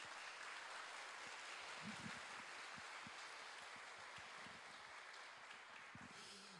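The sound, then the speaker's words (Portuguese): An audience applauds for Christ, sustained and dense, a steady wash of many hands clapping together at an even volume throughout, with no voices standing out. “Vamos aplaudir a Cristo, irmãos.”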